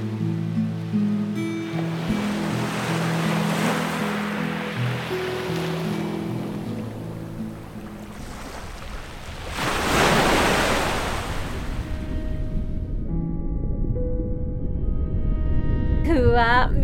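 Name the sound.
ocean waves washing in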